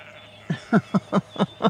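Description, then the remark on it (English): Katahdin sheep bleating, a quavering run of about six short, pulsing cries in quick succession, moderately loud over a low steady background hum, with no one talking. “they're Katahdins.”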